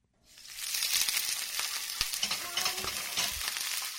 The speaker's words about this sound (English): She's frying onions and chopping cilantro.